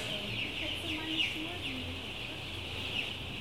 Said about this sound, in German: So, jetzt sind wir reingehen. Dann piept es schon mal, was sehr gut ist.